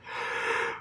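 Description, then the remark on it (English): A yawn: one short, breathy rush of air that swells and fades within a second, with no talking around it. “So I'm yawning because it's already dark.”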